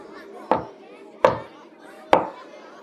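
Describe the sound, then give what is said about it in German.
Three firm knocks on a wooden door, evenly spaced about a second apart, clear against a faint background murmur: a schoolgirl knocking on the third toilet door after a brief hesitation. “Die Schülerin spürte, wie ihr Herz ein wenig schneller schlug, als sie sich langsam der besagten Tür näherte und nach kurzem Zögern dreimal gegen diese klopfte.”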